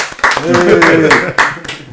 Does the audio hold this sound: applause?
yes